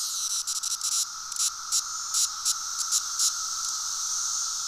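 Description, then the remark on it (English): A dense chorus of Magicicada cassini periodical cicadas drones steadily, a loud high-pitched buzzing wall with irregular pulsing surges layered over it, no voices, sounding like many insects calling at once. “So the cassinis are a cicada that sound pretty similar to your average cicada that people have heard”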